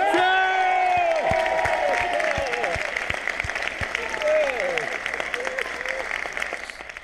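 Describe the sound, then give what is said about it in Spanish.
Loud, sustained applause from an audience, dense rapid clapping throughout, with excited cheers and high-pitched whoops rising over it in the first few seconds. “Recordar, ya viste todos los que te estábamos ahí aplaudiendo”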